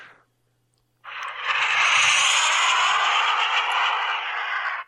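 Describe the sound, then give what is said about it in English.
After a brief silence, someone voices a jet engine: a steady, breathy roaring whoosh held for nearly four seconds, fairly loud, with no speech. “Jet noises. Seriously.”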